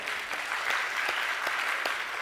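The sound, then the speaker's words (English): A steady burst of audience applause at a community gathering, the audience giving itself a hand; dense crackling claps fill the whole clip at an even, fairly loud level with no voices over it. “And if you weren't here last week, well, yeah, give yourself a hand.”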